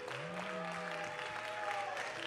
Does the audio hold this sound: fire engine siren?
no